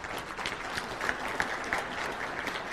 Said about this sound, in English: Thank you. you may, let's give us people a, a round of applause.